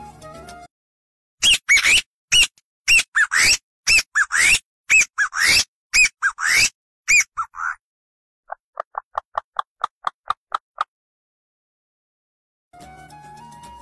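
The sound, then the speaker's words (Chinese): A feilulu, a simple flute made from a dried gourd stem with a blowing hole in the middle, mimics birdsong: a quick string of loud, shrill, warbling chirps, followed by a faster run of softer, thinner peeps before it falls silent. “用葫芦晒干后的枝条做成一个像笛子形状的东西，需要在中间打一个用来吹奏的孔，制作起来呀非常简单。”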